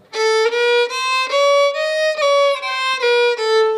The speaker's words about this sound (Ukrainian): Ага, ти, оце так зараз ти налаштовуєш скрипку. Та й вже. Зараз буде противні звуки.